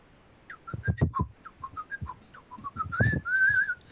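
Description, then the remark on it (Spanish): A person whistles a short, lively tune of quick separate notes that rise and fall, ending on a longer held note, with soft low thumps underneath and no talking. “Ese silbido ya cambia la cosa. Ahí hay melodía, hay ritmo, hay altura.”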